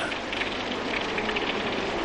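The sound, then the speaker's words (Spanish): Steady rain falls at night in a marsh in a dense, even hiss, with soft patters of drops spread across the sound. It stays constant and moderately loud throughout, with no voices. “La lluvia caía en mi cabeza.”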